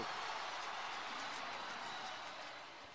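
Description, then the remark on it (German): An NFL stadium crowd roars after a successful extra point kick, a steady, hissing wash of cheering that holds for a few seconds and then begins to fade, fairly faint and with no clear voices on top. “Man, ich glaube, man hat so ein bisschen an den äh, Zuschauern gehört, aber ja, ein bisschen mehr äh, Stimmung, glaube ich, in der Stimme hätte dem Ganzen gut getan.”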